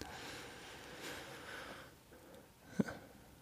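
A man in a film scene breathes heavily and raggedly, with long noisy inhales and exhales, then a sharp snort-like catch of breath near the end. No one speaks.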